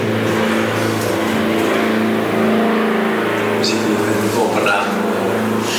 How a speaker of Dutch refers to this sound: Er passeert een vliegtuig trouwens. Ik ga even wachten, hè.